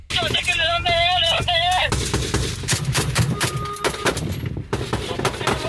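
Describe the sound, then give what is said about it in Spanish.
Loud bursts of rapid gunfire crackle in irregular volleys during an armed clash in Coahuila, Mexico, with a wailing siren rising and falling over the opening seconds before the shooting carries on alone. “Así se escuchó en esta parte, pero ahora en Coahuila, así escuchó la refriega.”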